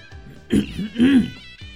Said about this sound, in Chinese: 博学先生清了清嗓子，开口说道：